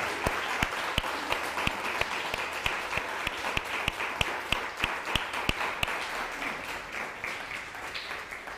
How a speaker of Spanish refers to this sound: Nuevamente un fuerte aplauso a todas las naciones.